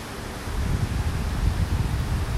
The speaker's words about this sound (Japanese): 滝の音いいでしょうなかなか本当この紅葉の色味をね楽しみながら滝の音を聞いて ものすごくリラックスしております